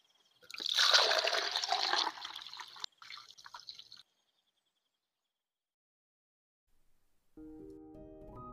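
Fresh spring water trickles and splashes steadily for about three seconds, fairly loud, then stops; after a pause of silence, soft music begins.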